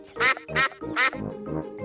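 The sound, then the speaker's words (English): Ducks quack at a little duck pond in a Peppa Pig scene where Peppa and George feed them bread: a quick run of about five or six nasal, raspy quacks, the first three loud and the last few a little softer, with no talking. “Mummy, can we feed the ducks?”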